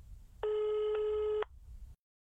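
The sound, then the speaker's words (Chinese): A single telephone ringing tone of an outgoing phone call sounds for about a second, a steady, fairly loud pitched buzz with a slight hitch midway, over a low rumbling background that cuts off shortly after. “林峰拿起电话打了一遍”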